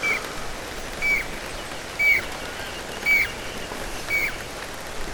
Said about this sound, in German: Ja, jetzt stehe ich hier im Regen und erzähle über Regenvögel.